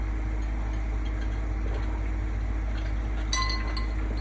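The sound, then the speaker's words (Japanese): Ice cubes clink brightly against a drinking glass of grapefruit sour in a short ringing cluster near the end, over a steady low hum with no talking. “カラーンってね、氷の、いい音になっちゃってますけど、今日はね、これはグレープフルーツサワーです。”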